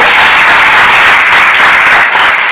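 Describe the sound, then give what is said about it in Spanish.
Loud, sustained applause from a large audience, a dense wash of many hands clapping at once with no pauses, filling the whole moment without any voices. “Así que a un fuerte aplauso porque te vamos a dar un final.”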